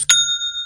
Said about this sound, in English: Uh, it's the sound of yet another sale on Shopify and it's the all in one commerce platform which can start, run, and grow your own business.